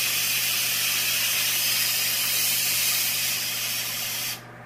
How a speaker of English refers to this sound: So the the blocking shield should prevent all the big stuff coming out, but I just don't want this thing getting clogged, so I don't want to invite trouble. Gotta relieve the pressure until absolutely no more steam comes out.